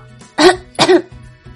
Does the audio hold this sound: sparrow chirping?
no